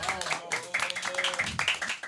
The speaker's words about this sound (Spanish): Un aplauso, por favor.